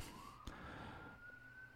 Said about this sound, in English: uh, can, you hear the sirens outside? I imagine you can. Um, the block's hot right now, so I apologize for that. I'm not. I'm not gonna edit this out. Um, I hope whoever's in the ambulance is okay though.